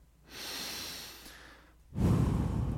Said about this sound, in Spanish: Para comenzar, usted primero debe relajarse. Relájese. Respire profundamente.